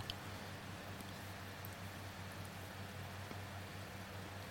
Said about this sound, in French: Voilà, on n'entend pas trop, mais il y a le bruit du ventilateur.